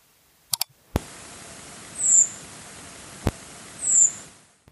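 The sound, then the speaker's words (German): Two thin, high, drawn-out "tseeep" flight calls of a redwing, a typical call often heard at night, spaced about two seconds apart, heard fairly clearly over a steady hiss of background noise, with a few sharp clicks. “das war jetzt ein typischer Flugruf von der Rotdrossel, der nachts sehr oft zu hören ist, aber ebenfalls auch tagsüber geäußert wird.”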